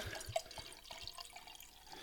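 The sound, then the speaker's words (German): Grüner Veltliner wine from a winery in Krems being poured into a glass, a soft trickling splash with small bright plinks and gurgles over roughly two seconds, fairly quiet with no voices. “Mal und darf dir da das erste Schlückchen kredenzen.”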